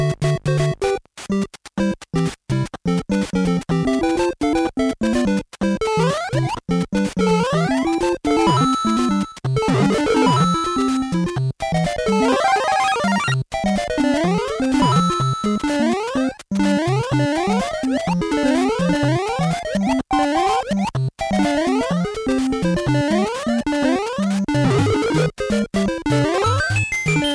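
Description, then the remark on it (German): The Super Mario first-level theme plays on its own: bright, bouncy chiptune melody lines with quick staccato notes and short gaps, over a busy bass, steady and loud throughout. “Ich glaube, es gibt wirklich niemanden, der nicht sofort die Bilder vom ersten Level von Super Mario im Kopf hätte, wenn er diese Musik hört.”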